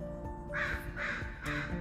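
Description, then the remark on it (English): A crow caws three times near a patio in a steady rhythm, each call harsh and raspy and fairly loud, carrying over a low, constant outdoor hum. “well, thanks for agreeing with me, Crow.”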